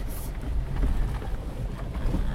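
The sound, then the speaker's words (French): A steady engine rumble of a 4x4 jeep grinding over a rough, rocky road, with scattered knocks and rattles riding on the low drone and no voices. “Ah bah, je pense que vous entendez bien le bruit que la voiture fait.”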